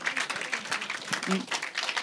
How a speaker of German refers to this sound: Gratulieren. Gratulieren. Kleinen Applaus fürs Queen vielleicht. Das heisst, es ist sehr verdient.